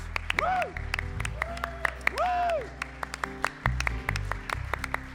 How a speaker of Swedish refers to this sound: Och jag är så glad så att jag bara, jag bara applåderar. Halleluja! Jag applåderar till Jesus.